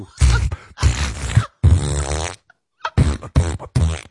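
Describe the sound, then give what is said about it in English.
A person vocally imitates a loud fart: several sputtering, buzzy raspberry bursts in quick succession, forceful, with short gaps between them and no words spoken. “I mean, I, she I mean, really ripped one. Like she, she was ripping it like a dude.”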